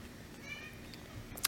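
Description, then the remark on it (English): A cat lets out a soft, short meow, followed by a brief sharp tick right at the end. “yep that's um, my cat too”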